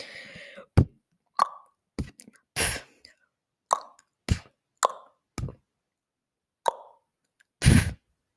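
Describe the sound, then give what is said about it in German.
A voice produces about a dozen separate beatbox sounds one at a time, with short pauses between them: sharp clicks, pops, kick-like thumps and hissy bursts, fairly loud. “Und jetzt mal wirklich nur die einzelnen Töne hintereinander.”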